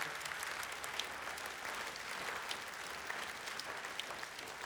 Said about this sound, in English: Our church stood. And we got, yeah, applaud yourself.